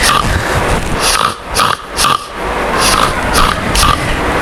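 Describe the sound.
A child's voice imitates a pig, making a quick series of fairly loud snorting oinks in a steady rhythm, roughly two grunts per second, with no talking.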